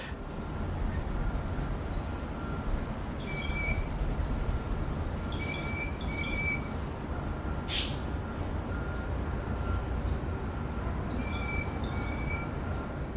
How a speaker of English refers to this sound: two sounds I would like to share with you both recorded at the incredible green space called Point Pleasant Park. The first one is I call a ring ping bird because I thought someone had dropped their phone and was trying to call it.